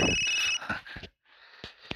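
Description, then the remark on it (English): A brief electronic telephone ring tone sounds for about half a second, followed by a few sharp clicks, a short silence, and a faint line hiss with more clicks. No one speaks. “Man, it's been ringing forever.”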